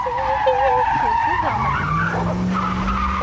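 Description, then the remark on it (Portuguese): Tires squeal loudly in a wavering, high-pitched skid as a car brakes hard and nearly hits a vehicle that braked in front of it, with engine rumble underneath and a voice briefly audible over it. “A gente quase bateu num ninho aqui. Mas não foi culpa nossa. Ele é freou na nossa frente, assim, imbecil.”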